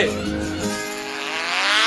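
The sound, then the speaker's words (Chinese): A remote-control model airplane with an XV-77 single engine buzzes with a high, thin whine, its pitch sliding slightly as it drones steadily for about two seconds. “我瞧着有点像装载 XV 七七型单体发动机的遥控飞机模型。”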